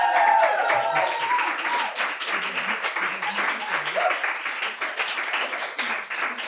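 A live crowd applauds and cheers steadily, dense clapping with shouts and whoops over it, loud, sustained for several seconds with no one speaking.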